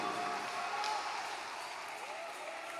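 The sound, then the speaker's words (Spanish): An audience applauds God steadily, a dense wash of many hands clapping at an even, sustained loudness for the whole stretch, with a murmur of voices blended underneath. “Si el aplauso para Dios, dáselo.”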